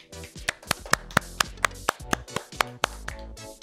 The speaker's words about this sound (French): un tonnerre d'applaudissements pour lui.